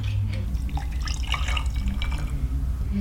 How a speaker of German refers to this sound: Es werden 90 ml Gin oder Wodka, 4 Teelöffel Zitronensaft, 2 Teelöffel Rosenwasser und 3 Teelöffel Himbeersirup miteinander vermischt. Dann legt ihr ein paar von den Roseneiswürfeln in ein Glas und übergüsset sie mit der Alkoholmischung.